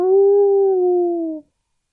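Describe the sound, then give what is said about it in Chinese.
A single sustained howl of a big grey wolf, steady and tonal with a slight fall in pitch, lasting about a second and a half before cutting off into silence. “小猪变成了大灰狼，嘟嘟嘟嘟嘟嘟嘟嘟嘟嘟嘟嘟，跑过去吓唬大家。”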